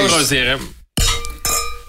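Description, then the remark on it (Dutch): Glasses of alcohol-free champagne clink together twice in a toast, each bright strike ringing on with a clear tone, loud, just after a short stretch of voice. “Eerst een proost op de 50 Jongens, eh, van harte.”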